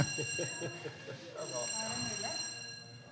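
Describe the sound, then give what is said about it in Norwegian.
A fire alarm sounds continuously, a steady piercing electronic tone with no breaks, while people talk underneath it. “Der går brannalarmen. Midt i podkasten.”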